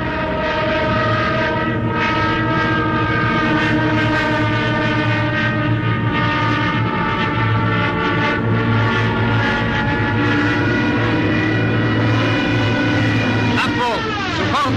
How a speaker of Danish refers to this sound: det tyske Stukas angriber her ved Dunkirk.